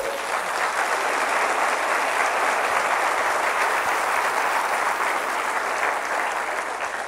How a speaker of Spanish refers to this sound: ¿Cuántos llamados hay aquí? Dale un aplauso al Señor si tú eres un llamado.